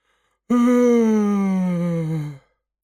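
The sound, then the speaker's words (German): A loud, drawn-out yawn from a single voice, starting abruptly and sliding slowly downward in pitch for about two seconds before cutting off; isolated with no talk. “Und als sie am nächsten Morgen den Speisesaal betrat, gähnte sie lauthals.”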